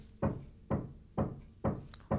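Five heavy, dull bangs in a steady, evenly spaced rhythm, made by a neighbor in the adjoining flat, muffled as if coming through a wall, with a faint rumble between hits.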